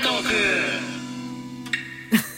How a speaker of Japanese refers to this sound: 猫の、猫の声が最初に入っちゃいました、ね、入ったよね。入ったね。うん、我々 が話し出す前に、にゃんこ喋っちゃいましたね。